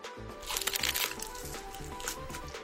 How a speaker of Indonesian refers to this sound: Nih, aku gigit ya biar sobat pangan dengerin langsung nih biar ngiler. Pertama kita coba yang bir butter.